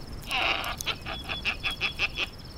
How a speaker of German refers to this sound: Wir liefen über den Platz auf das Eingangstor zu, als wieder ein Schrei ertönte.